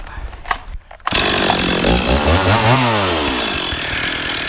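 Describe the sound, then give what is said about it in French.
A chainsaw snarls into life after a brief quiet moment, then roars loudly and steadily at full throttle in a private forest, its pitch rising and dipping slightly as it revs. “Alors voilà, on est là dans cette forêt privée, comme des voyous, la tronçonneuse à fond, et moi, je suis content.”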